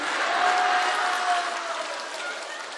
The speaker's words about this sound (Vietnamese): quý vị vỗ tay là kích thích đó nghe mấy bà kích mình thích giảng rõ ràng